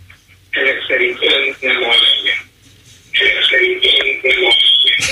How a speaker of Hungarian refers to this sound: csak az a baj, hogy minden 20 másodperces késleltetéssel megy a rádiója, ha van, szóval ahol a rádió szól, azt ki kéne kapcsolnia